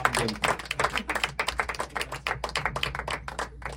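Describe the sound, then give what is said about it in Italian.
A burst of applause: brisk, uneven clapping from a small group, a dense patter of sharp hand claps lasting a few seconds with no voices over it. “Un altro applauso, dai.”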